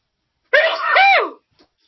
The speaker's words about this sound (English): So, just a sec. darn, darn, I'm I'm gonna have a sneeze. Oh, oh dear, dear.